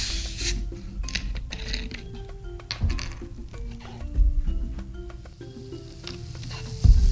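Two cups of fizzy 7-Up soda being poured into punch, a steady crackling, hissing fizz that runs throughout, with a few soft thumps and a faint melodic tone underneath.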